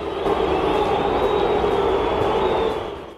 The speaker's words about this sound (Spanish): Sí, bueno, ahí entre abucheos y, y, algunos aplausos se fue José Juan Macías, ingresa el Canelo.